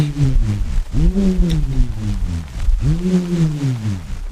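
A bullroarer, a flat, elongated piece of wood with rounded corners on a long string, whirs in loud, low, pulsing waves as it is swung in circles through the air, its pitch swooping up and down roughly every two seconds, with no voices.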